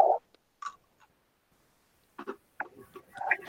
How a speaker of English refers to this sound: Yeah, so these are the special extra dark pretzels. So it's gonna be crunchy. I'm gonna crunch. Hopefully nobody's gonna like be annoyed by my my crunchy noises.